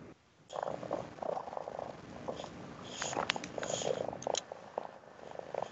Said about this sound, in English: And for some reason, she's purring tonight, or someone extremely close to her microphone.